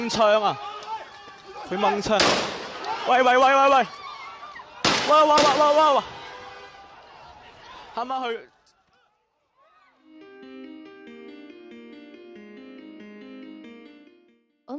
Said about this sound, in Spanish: Amanece una nueva jornada de violencia en las calles de Hong Kong. Disparos, gases lacrimógenos contra los manifestantes.